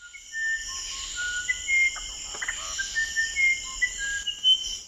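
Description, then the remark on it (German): A musician wren whistles in a South American rainforest, a string of pure, flute-like notes that step between different pitches, clear, over a constant high buzz of insects. “Aber das, was der sogenannte Flageolett-Zaunkönig in den Regenwäldern in Südamerika pfeift, ist das musikalischste, was Forscher bisher entdeckt haben.”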